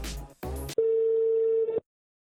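A few brief bursts of noisy clatter, then a single steady ringback tone of an outgoing phone call hums for about a second before cutting off into silence. No one speaks.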